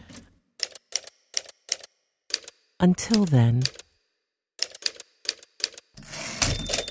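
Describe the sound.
Sharp, clattering typewriter keystrokes in quick irregular bursts, broken by a short spoken phrase, then more key strikes ending in a rougher mechanical clunk like a carriage return.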